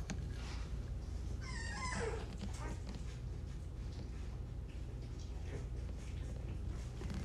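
Puppies squeal and whimper while nursing from their mother, with a burst of high, wavering cries early on, then softer scattered yips and whines over a steady low background rumble.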